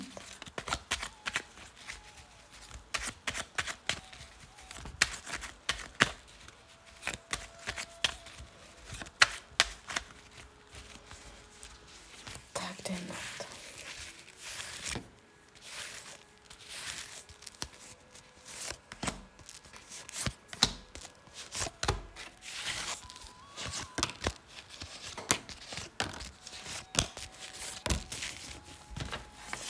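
Tarot card shuffling with rapid, crisp riffling and soft slaps and taps, continuing in irregular bursts for about half a minute with no voices.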